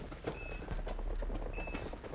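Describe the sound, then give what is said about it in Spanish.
Horses galloping in a rapid, rhythmic patter of hoofbeats over a rough, noisy background, fairly quiet and steady throughout, with a faint high whistle-like tone briefly appearing twice. “el galopar de unos caballos.”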